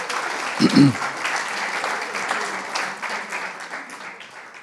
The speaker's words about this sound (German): Preis dem Herrn, ja, schenke Jesus einen Applaus.